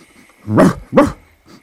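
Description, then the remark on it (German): A dog with large bags under its eyes and a long tongue, looking in through a window, barks twice in quick succession, loud, followed by a much fainter third bark trailing off. “Ein Hund mit grossen Augensäcken und einer langen Zunge schaut zum Fenster rein.”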